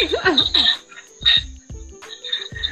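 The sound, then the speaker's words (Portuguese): Cicadas buzz with a shrill, steady whine, swelling into louder pulsing bursts every second or so, with a few dull low thumps in between. “Barulho é das cigarras.”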